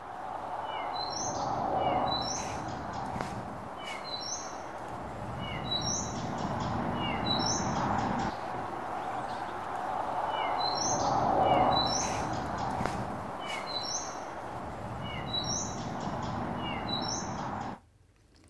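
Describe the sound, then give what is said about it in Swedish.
A great tit, a small grey-green bird, sings in a linden tree on a Saturday morning: a clear, repeated two-note phrase in short bursts every couple of seconds, moderately loud over a steady background hum, with no voices. “Den enda som jag kommer att tänka på så är, är talgoxen. Talgoxen kan sjunga på många olika sätt.”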